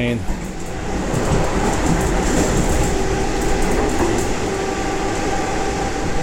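A train rolls along the rails, its loud, steady rumble broken by a rhythmic clickety-clack of wheels over track joints for the whole stretch.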